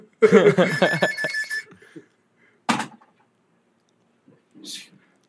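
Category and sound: household object, landline house telephone ringing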